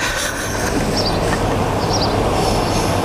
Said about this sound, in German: Ja, jetzt kommt ah. der Zug.